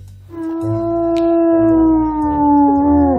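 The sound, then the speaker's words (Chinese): A wolf howls in the distance: one long, steady, mid-pitched note held for about three seconds and dipping slightly at the end, with no voices. “是是是是是狼。是真的狼，真的，真的有狼！”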